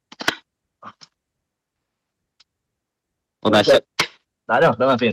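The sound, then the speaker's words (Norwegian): An avalanche shovel, part of avalanche safety gear, is put together, with a short burst of rattling and a few sharp clicks as parts lock into place, followed by a voice speaking briefly. “Det er lyden av spaden. Ja, det er en sånn her vi kan sette sammen.”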